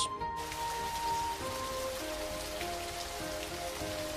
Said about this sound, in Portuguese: Antes de chegar ao local, ela já começa a ouvir o gratificante som da água batendo em rochas.